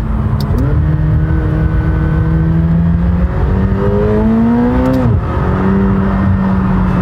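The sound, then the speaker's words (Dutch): A 720-horsepower McLaren accelerates hard with wheelspin, even in second gear, its loud engine note climbing steadily in pitch, then dropping briefly at each of several quick gear changes, on up to third, before rising again. No one speaks. “Wielspin zelfs in 2. Op door naar 3.”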